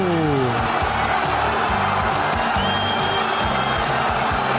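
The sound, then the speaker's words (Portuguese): A football crowd of Palmeiras fans roars in celebration of a goal, a loud, steady wall of cheering with chanting voices rising and falling underneath throughout. “A torcida do Palmeiras comemora o desvio.”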